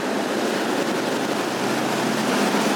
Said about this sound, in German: So, ganz schönes Tempo drauf. Ja, ne? die, ja die hat auch viel Wasser, die Steinach, habe ich das Gefühl.